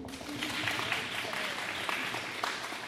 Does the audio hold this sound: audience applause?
yes